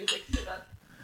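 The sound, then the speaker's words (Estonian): Tea cups knock together in a quick toast: a bright clink followed by a duller knock, brief, with no voices. “terviseks, terviseks”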